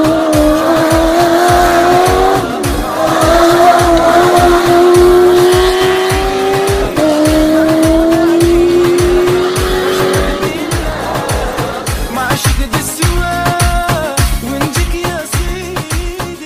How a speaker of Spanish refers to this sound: Os espero a todos para empezar este nuevo año con el rugido de los motores.